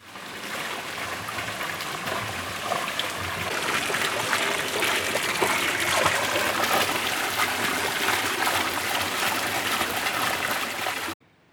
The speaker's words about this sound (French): Alors là, c'était les termes. Ce qu'on entend, c'est la fontaine des termes, la fontaine extérieure des termes